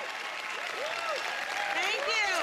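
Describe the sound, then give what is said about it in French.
Loud, dense applause from a large crowd fills the whole stretch, steady, with scattered voices calling out over the clapping, as celebrities such as Reese Witherspoon, Steven Spielberg and Jennifer Aniston appear on stage at an Apple announcement amid camera flashes. “Chacune de ces célébrités suscite un tonnerre d'applaudissements et une nuée de flashs.”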